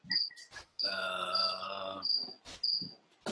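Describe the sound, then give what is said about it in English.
Crickets chirp in a garage in steady, high-pitched bursts throughout, fairly clear, while a long droning groan-like sound swells briefly in the middle, with a few sharp knocks scattered around. “or, this, or this kids' picnic table we've set up in my garage amongst all the crickets.”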